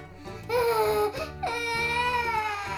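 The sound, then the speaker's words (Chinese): A small blue child crying in two long, high-pitched wails, the second drawn out and wavering, over a soft steady musical backing. “他看到一个正在哭的蓝色小小孩。”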